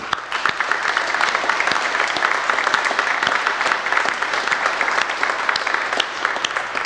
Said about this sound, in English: And I think it is most appropriate to offer a hand clap of praise, as the psalmist might say, for all that we have seen.